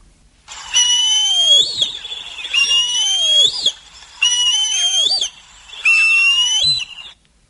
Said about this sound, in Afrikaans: dis 'n groot valk en hulle hang aan die geite met die een poot en haal met die ander poot kuikens uit. Ek het vermoed as daar 'n kerk is met neste, moet jy begin soek na die kalwangvalk. Hy klink so.